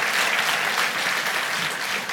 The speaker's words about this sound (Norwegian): Han fortjener applaus.